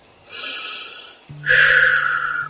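A person breathing with no talking: a soft, airy inhale followed by a louder, rougher exhale with a faintly nasal, snorting edge.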